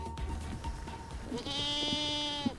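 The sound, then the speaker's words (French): Angora goats, raised for their mohair wool on a labelled farm in the Sarthe, France, bleat, one long wavering, nasal cry standing out clearly over a low murmur of background noise, with fainter bleats before it. “Même si elles semblent étonnées, ce sont bien ces chèvres angora qui attisent la curiosité.”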